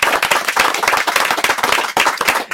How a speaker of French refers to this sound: Et comme vous êtes un comédien, comme lorsque vous êtes sur scène, on va encore vous applaudir.